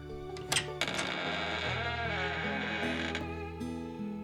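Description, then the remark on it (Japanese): An orange door slowly creaks open with a long, drawn-out groaning squeak, preceded by a couple of sharp clicks like a latch turning. No voices. “よし今日もこのドアの向こうに行ってみよ”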